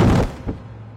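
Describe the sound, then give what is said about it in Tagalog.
A loud, heavy thud of something falling in front of a main entrance, followed a moment later by a softer second knock, then a low rumbling decay that fades away. No voices. “Sa lakas ng kalabog at sa klase ng pagkadinig ko ay tila hindi maganda ang kinahinatnan ng nahulog na kung ano o kung sino ito.”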